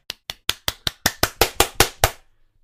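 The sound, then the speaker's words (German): A short burst of hand clapping, about eleven sharp claps in a quick, steady rhythm, growing slightly louder, with no voices. “Ich glaube, das hat ein kleines Applaus verdient.”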